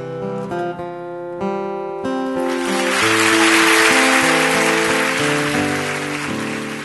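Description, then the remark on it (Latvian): Sustained applause from a standing TV studio audience swells in after a few seconds of soft sustained music as Oprah leaves the studio after her final show, a dense, steady clatter of clapping that stays loud while the music carries on underneath. “No TV studijas opera pēdējā raidījumā izgāja kājās stāvošu skatītāju aplausu pavadīta”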